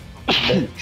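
A single sudden sneeze bursts out with a sharp hissing onset and a short voiced tail, followed by a faint breathy trailing sound.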